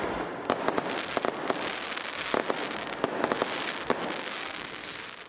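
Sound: fireworks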